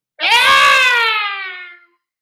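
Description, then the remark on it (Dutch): One loud, shrill, sustained scream lasting under two seconds, trailing off slightly as it fades, with no other sounds around it. “En eh, al die dames en ik in het midden, toen we plots een vreselijk geschreeuw hoorden.”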